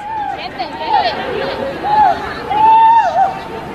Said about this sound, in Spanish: Escuchen los gritos de dolor de la árbitra. Es que ha sido un buen disparo, ¿eh? O sea, pero un grito que dices tú, Dios.